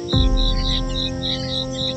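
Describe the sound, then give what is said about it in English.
Crickets chirp loudly outdoors at night in a steady, rapid rhythm of high pulses repeating about four times a second, over a low background rumble. “So I'm sitting out here under the night sky with these loud ass crickets”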